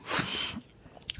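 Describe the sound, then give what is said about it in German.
A single sneeze erupts as a loud, breathy burst of noise for about half a second, then fades into quiet with a few faint clicks and rustles afterward. “Gesundheit.”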